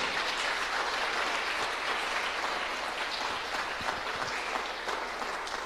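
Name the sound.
audience applause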